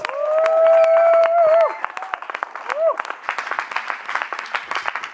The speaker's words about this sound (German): geben wir ihnen einen riesen Applaus.